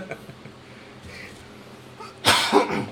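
A sudden, loud cough or sneeze bursts out near the end, a harsh explosive blast with a second quick push, following a stretch of quiet low murmuring.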